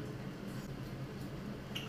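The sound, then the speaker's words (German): Soft, continuous wet swishing and faint clinks as a fork stirs spaghetti in a pot of boiling water so the spaghetti is fully submerged, fairly quiet, with a brief brighter tick near the end. “Nehme anschließend eine Gabel und verrühre etwas, damit die Spaghetti komplett im Wasser sind, weil sie erst etwas nach oben rausgucken.”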